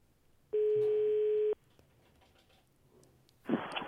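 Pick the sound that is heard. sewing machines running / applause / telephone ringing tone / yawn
telephone ringing tone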